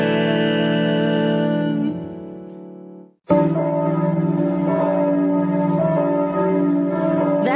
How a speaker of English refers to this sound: ringing church bell can only mean one thing.